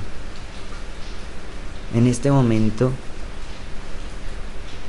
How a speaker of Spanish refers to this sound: me inspiro con la lluvia que estoy escuchando a través de mi ventana